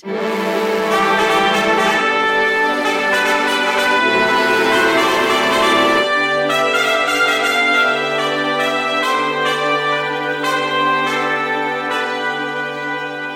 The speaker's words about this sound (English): Did I trigger that dramatic music? Nice.